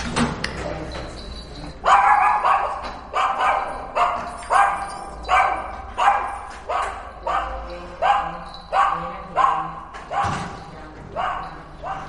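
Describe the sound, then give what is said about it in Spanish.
A female dog in an apartment building barks shrilly and repeatedly, a steady run of about a dozen sharp, high-pitched barks, loud and insistent with short gaps between them. “y cuando mete la llave abajo en el portal, la perra ya ladra.”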